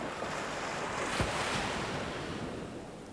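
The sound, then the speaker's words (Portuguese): Ocean waves and surf wash in a steady, continuous roar with a faint swell near the middle, soft breezy hiss layered over it and no voices. “O rei pagou o mercador a jovem foi levada ao banho e depois para um aposento com uma janela que dava para o oceano.”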